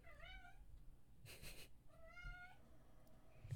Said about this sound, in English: one of her cats meows